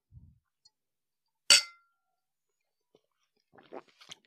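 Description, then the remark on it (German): A single bright clink of glasses touching in a toast, sharp with a brief ringing tail, followed by a pause and then soft, low voices murmuring. “Prost. Prost.”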